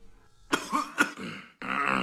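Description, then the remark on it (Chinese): A few short coughs from Mr. Burton, a story character, two sharp bursts about half a second apart, followed by a longer, rougher throat clearing that rasps on for nearly half a second. No speech. “伯顿先生咳嗽了几下，清了清喉咙”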